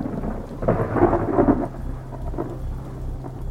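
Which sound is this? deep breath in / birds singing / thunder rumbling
thunder rumbling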